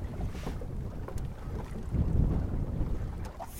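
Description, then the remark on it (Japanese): Wind buffets the microphone in a steady low rumble while water rushes and splashes along the hull of a sabani, a traditional fishing boat once used by fishermen of Itoman, Okinawa, as it slides quickly forward on wind alone, no longer being rowed, at sea on a fine day, with no one speaking. “今もうこいてないんですけど速いスピードでスーって進んでますねえー、風だけでこんなに進むんだ気持ちいいですね”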